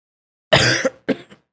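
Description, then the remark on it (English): Two loud coughs into the microphone in quick succession, the first longer and harsher, the second shorter with a small rasp at its tail, with silence before and no talking. “that um ain't coughing on the mic.”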